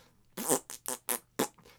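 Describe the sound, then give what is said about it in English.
A voice imitates a fart bomb with a run of five quick, wet, sputtering blasts of uneven length, fairly loud, with short gaps between them and no talking. “fart bomb and just blows up yeah, the room it's like middle finger turd comes yeah okay see i just thought i was like ah oh, typical fart bomb then”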